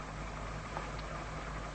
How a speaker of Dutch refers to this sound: Zet u eerst die motor maar eens af.